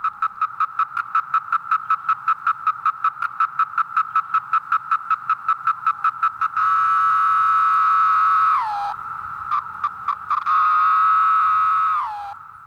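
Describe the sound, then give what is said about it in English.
A chorus of 17-year periodical cicadas, first a steady rapid pulsing buzz, then a loud continuous droning whine that drops in pitch at the end of each long call. No one speaks. “See you in 17 years, fellas.”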